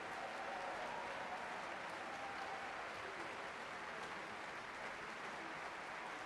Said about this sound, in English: Demarre McGill back out on stage now, and much applause from the crowd here at Davies Symphony Hall and from the members of the San Francisco Symphony.